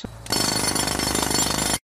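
A loud, close jackhammer kicks in after a brief quiet moment, hammering in a rapid, steady rattle for about a second and a half before cutting off abruptly.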